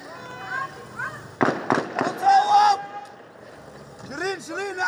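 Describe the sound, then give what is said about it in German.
A quick burst of several sharp gunshots cracks out in rapid succession, followed by people shouting urgently over steady background noise; shots fired at an Al Jazeera news team, including journalist Shirin Abu Akleh, reporting on an Israeli military raid on 11 May. “Weitere Schüsse in rascher Folge.”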